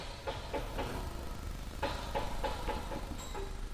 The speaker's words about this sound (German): Die Geräuschkulisse bestätigt meine Vermutung, dass ich auf eine Baustelle gestoßen bin.